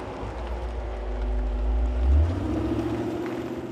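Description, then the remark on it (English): A car's engine rumbles low, growing a little louder as it rolls up to a stop sign intersection, then settling into a steady idle as the vehicle comes to a stop. No one speaks. “Oh, here comes a car now.”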